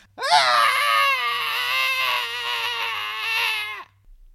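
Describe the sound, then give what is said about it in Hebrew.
A single loud, sustained wail like a French baby crying, one drawn-out high-pitched cry lasting a few seconds with a slight waver before it cuts off, with no talking. “אם אני פוגש תינוק צרפתי, עכשיו, אני לא מבין מילה בצרפתית, אבל התינוק אומר לי”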